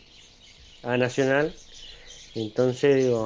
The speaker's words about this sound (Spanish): Hay unos pájaros ahí este, atrás.